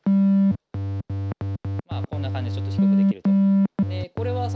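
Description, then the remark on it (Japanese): An analog synthesizer, using a triangle wave mixed with another waveform, plays a series of bright, buzzy notes shifted up an octave with the octave setting while the same keys are played, first in short staccato bursts and then held longer, with a voice briefly talking over the middle. “はい、でえー、っとオクターブまあその音の高さですねというのも今選べて同じところを弾いていても”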